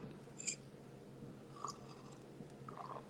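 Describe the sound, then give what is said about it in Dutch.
Quiet sipping from a drink: a few soft, wet mouth and swallowing sounds spaced out over a few seconds, with no talking. “Voilà, ik pak nog eens een slok.”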